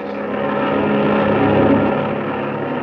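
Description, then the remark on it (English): A loud, steady drone of a twin-engine (bimotored) wing cabin plane circling over an aerial battle with Ivan Shark at the controls, its engines humming continuously with a rich, throbbing tone and no voices present. “Circling over the unequal sky battle is the bimotored wing cabin plane with Ivan Shark at the controls.”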